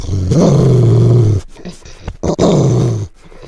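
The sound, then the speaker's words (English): Two long, deep growls, each rumbling for over a second with a slight rise then falling pitch, separated by a short pause with faint breathy sounds; loud, no talking. “So this week we gave you two growls.”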